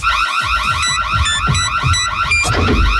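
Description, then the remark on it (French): A radio contest alert jingle: a loud, siren-like warble of rapid repeating sweeps, punctuated by short high electronic beeps and low thumps, lasting about three seconds with no talking. “Dès que vous entendez cette alerte.”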